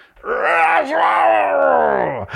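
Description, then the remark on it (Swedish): A person's voice lets out a long, loud, strained monster-like scream, rising into a sustained growling groan with a sudden start and a brief dip near the end. “Och om den enhörningen inte vann, ja, då brukade monstret skrika”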